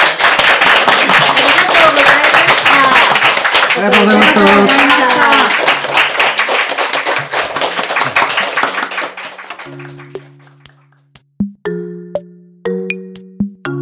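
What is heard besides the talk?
audience applause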